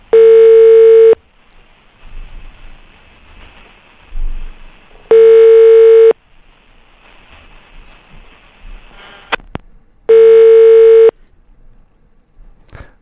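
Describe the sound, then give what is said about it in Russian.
A telephone ringback tone repeats three times on a call to People's Deputy Anton Gerashchenko, adviser to Interior Minister Arsen Avakov. Each steady buzzing ring lasts about a second, with roughly four-second gaps of quiet line noise between, and nobody picks up. “Не берет трубку пока Антон Юрьевич, но, может быть, сейчас все-таки поднимет.”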